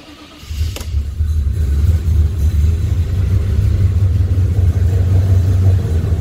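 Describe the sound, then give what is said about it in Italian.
A Maserati car engine catches and fires up after a moment of quiet, starting on only two cylinders, then settles into a loud, rough, uneven low rumble. “è partito a due cilindri e comincia a girare”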